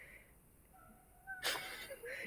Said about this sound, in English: Well, the cat's squeaking outside.